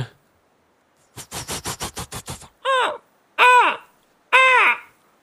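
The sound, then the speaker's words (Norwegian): A raven, Munin, gives a quick run of about eight hollow knocking clicks, then three loud, harsh croaks spaced evenly apart, with no one talking. “Ravnen Munin vender tilbake til deg.”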